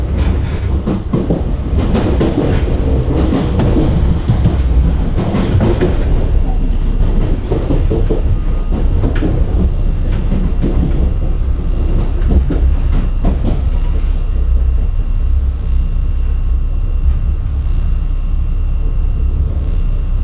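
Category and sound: vehicle, train riding on rails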